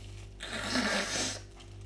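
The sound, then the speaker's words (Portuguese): A person with a runny nose blows their nose once for about a second, a loud, breathy rushing of air through the nostrils that rises and fades, with a low steady hum behind it and no talking. “Pá, desculpem, tenho que me assoar, estou aqui com o pingo ao nariz, vou fazer um pouco de barulho.”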